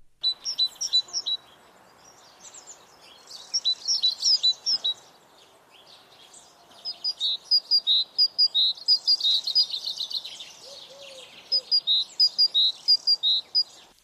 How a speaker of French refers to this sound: La mésange charbonnière, vous l'avez certainement entendu chanter.